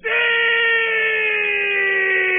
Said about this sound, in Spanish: El sonido es perfecto cuando sientes en la nueva tablet Huawei M2, desde el grito eufórico de un fan